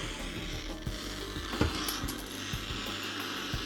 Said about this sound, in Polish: Enter radio in plane. I teraz już mamy radio. To jest szum radia.